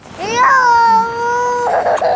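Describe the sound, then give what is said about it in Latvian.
A two-year-old boy, whom his parents cannot calm, cries in one long, loud wail that rises sharply, then holds a strained, steady pitch before breaking off into a ragged sob, while a group of refugees waits after crossing a bridge. “Savukārt aiz manis vecākiem divgadnieki neizdodas nomierināt. Puika raud.”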